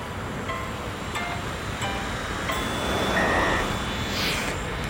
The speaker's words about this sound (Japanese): 今日はですね、えー、JR 千葉駅、えー、下車で収録しております。